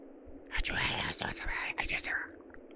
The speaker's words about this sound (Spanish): Una especie de voz que hablaba como muy bajito, como si cuchicheara, como si se secreteara con alguien.